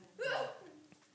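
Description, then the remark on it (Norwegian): A single sharp sneeze bursts out, loud and abrupt, then fades quickly into quiet with faint background noise. “Prosit.”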